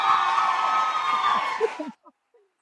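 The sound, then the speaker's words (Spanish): A live audience at a show in Bogotá, Colombia cheers and whoops loudly, a dense roar of many voices that holds steady, then cuts off abruptly, leaving a couple of faint stray voices. “Yo alboroto, yo alboroto al público de que yo ya soy en, esos programas de tele que te dicen de que grita, aplausos.”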